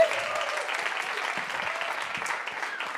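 An audience at a talk applauds a book author, a steady, dense wash of many hands clapping at an even level for the whole stretch, with no voices over it.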